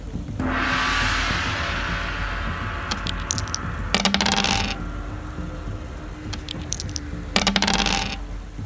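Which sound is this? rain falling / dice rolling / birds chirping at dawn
dice rolling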